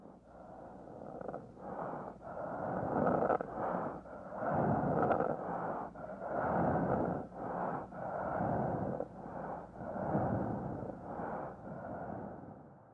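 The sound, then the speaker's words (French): Heavy, labored end-of-life breathing of a dying person, known as the death rattle, repeats in a steady rhythm, each breath a rough, gurgling rasp about every two seconds, fairly loud, with no voices. “La respiration de fin de vie s'appelle en anglais death rattle.”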